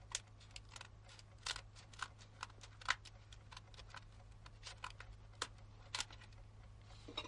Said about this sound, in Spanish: Van Helsing deja de bombear la sangre. Toma unas tijeras y corta los vendajes que sujetan la vía de Arthur.